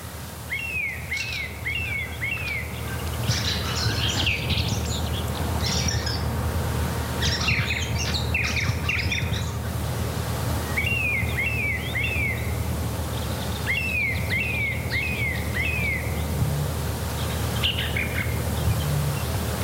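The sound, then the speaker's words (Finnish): A song thrush sings vigorously at about twenty to four in the morning, repeating short, bright whistled phrases three or four times each before switching to new ones, over a steady low rumble of background noise. “Ja sitten se oli siinä vähän ennen neljää, 20 vaille suunnilleen, kun laulurastas aloitti laulun ponnekkaasti, ei mitään anteeksi pyydelleen, vaan oikein kunnolla laulaen.”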